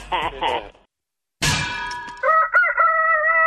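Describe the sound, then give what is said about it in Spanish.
A rooster crows loudly, a long drawn-out cock-a-doodle-doo that follows two short throaty calls and a brief pause. “Que no se le duerma el gallo y despiértese con el show del genio Lucas.”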